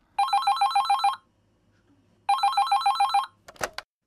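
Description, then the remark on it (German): A telephone in a music shop rings twice with a classic trilling bell, each burst about a second long with a pause between, then a clatter as the handset is picked up. Clear, no voices. “Und gleichzeitig klingelt auch noch das Telefon.”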